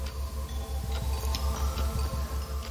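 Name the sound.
pocket watch ticking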